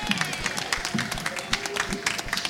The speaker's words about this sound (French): Nous avons Monsieur Matt Murdoch et Monsieur El Didou qui s'installent sous vos applaudissements nourris et spontanés.